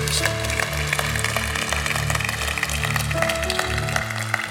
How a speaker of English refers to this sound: Give God a great hand. Clap and a shout of praise.